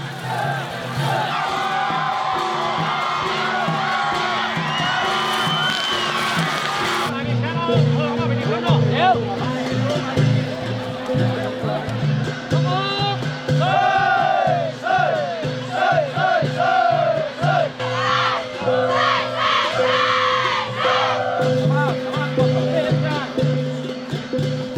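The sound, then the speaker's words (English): A large outdoor crowd at a dragon boat race roars and cheers continuously, with shouts and whoops rising over a dense babble of voices and a steady low rumble underneath. “With a healthy crowd in attendance, it's shaping up to be a memorable year.”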